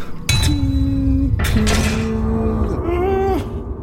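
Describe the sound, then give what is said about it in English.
Two giant snake heads strike iron doors from the outside: three loud metallic clangs spaced about a second apart, each leaving a ringing, humming resonance that carries into the next strike. “These, these two giant snake heads hitting the metal doors from the outside, and you realise just how close you were.”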